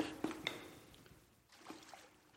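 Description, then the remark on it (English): Toilet water splashes and sloshes in a toilet bowl as it is splashed onto someone's face, a few quick irregular splashes followed by softer trickling, fairly faint and without any voices. “I love splashing this toilet water so in your eyes and on your face.”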